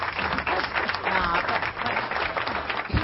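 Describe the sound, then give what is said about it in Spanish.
A steady wash of applause from a group, many hands clapping densely and continuously at fairly even loudness for about three seconds, with faint voices mixed in. “Es que es que vinieron los aplaudidores.”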